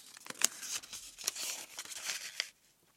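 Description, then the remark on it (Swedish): Paper slips poured into one container rustle and crinkle for a couple of seconds as a prize winner is drawn, with sharp crackling bursts as hands stir through them, fairly loud, then stop. “Och det drar vi bland alla som skickat in, så vi häller över papperslapparna i samma byta. Då drar jag här.”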